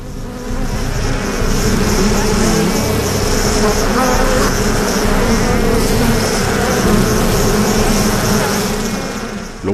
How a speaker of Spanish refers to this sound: único que él ve es el enjambre que trata de atravesar la careta y el sonido de los cientos de abejas que se estrellan contra él.